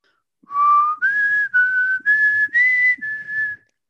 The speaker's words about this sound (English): Oh no, I'll whistle it just just because David Duchovny cannot, and I will whistle it because because you're superior.